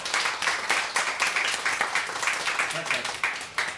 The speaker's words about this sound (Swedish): En applåd!